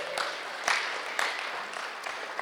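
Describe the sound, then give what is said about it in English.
A crowd claps steadily together for God for a couple of seconds, a dense crackling wash of many hands with a few sharper, louder claps standing out, and no voices on top. “Let's give God a clap.”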